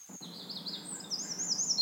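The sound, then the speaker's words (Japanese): Small birds chirp and trill in a forest, high twittering calls overlapping steadily over a soft low ambient hum, moderately quiet, with no voices. “軽く目を閉じて青い木々そこから漏れてくる木漏れ日暖かく心地の良い森林浴をイメージしてみてください木々が立てる音や小鳥のさえずりに意識を向けましょう”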